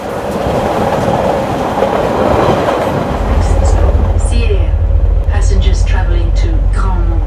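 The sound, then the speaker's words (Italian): A Swiss train riding on rails rumbles steadily, the low roar growing heavier partway through, while a voice speaks over the running noise. “Ho iniziato questo articolo in un treno svizzero e l'ho terminato nell'affascinante Espai Joliu di Barcellona.”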